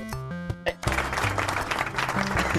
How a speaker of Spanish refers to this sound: Oh, aplausos, por favor.